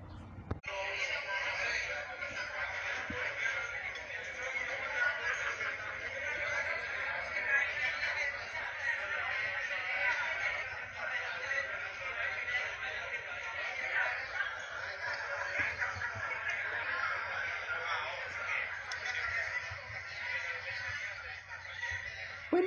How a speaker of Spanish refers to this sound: Como fondo ambiental, se escuchaban murmullos de los comensales y los cubiertos al chocar contra los platos.